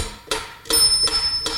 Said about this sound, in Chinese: 我可以把节拍器打开。